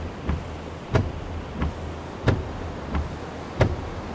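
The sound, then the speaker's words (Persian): A windshield wiper sweeps back and forth across the dry glass of a car stopped on a sandy stretch just short of the sea, six short scraping swipes in a steady rhythm about every two-thirds of a second, over a low idling engine hum. “بر فاکن رقص کنان روی شیشه خشک لغزید”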